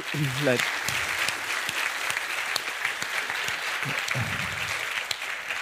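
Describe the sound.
An audience applauds steadily and fairly loudly for several seconds, a dense wash of many hands clapping, with a couple of brief voices rising through it near the start and again toward the end.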